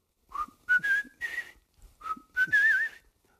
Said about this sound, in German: Und dann pfeife ich ihm in der Nacht, rufe ich ihn an, weil da fiel mir diese Melodie ein.